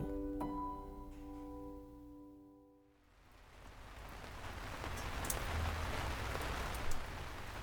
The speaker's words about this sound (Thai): ในความเงียบงันพลันเสียงฝนตกกระทบหน้าต่างดังขึ้น